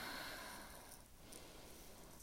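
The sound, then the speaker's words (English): Quiet, airy sniffing of an orange, a couple of short inhales through the nose against a soft breathy hiss, with no talking. “Take a sniff of this little cutie.”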